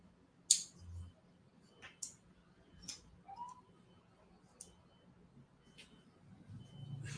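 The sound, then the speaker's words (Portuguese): Sparse, soft clicks of keys being pressed on a computer keyboard, about five or six irregularly spaced taps over a faint background hum, quiet. “É, esse teclado aqui não está fazendo barulho legal.”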